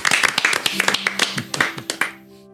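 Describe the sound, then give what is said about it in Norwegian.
A few people clap together for about two seconds, applauding themselves for creating an archive, a brisk, uneven patter of hand claps that stops abruptly, leaving a faint lingering tone. “Også en liten applaus for oss sjøl, som har skapt dette arkivet.”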